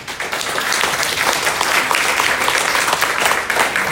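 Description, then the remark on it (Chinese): Loud, steady applause from an audience for the consultants, a dense crackle of many hands clapping at once that holds at an even level for about four seconds without any talking. “来，给顾问掌声一下。”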